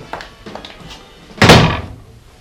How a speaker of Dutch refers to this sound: Doe die deur daar dicht